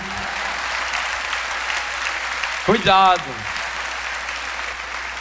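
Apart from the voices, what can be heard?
audience applause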